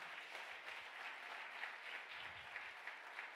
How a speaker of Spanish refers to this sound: Dime un aplauso fuerte al Señor.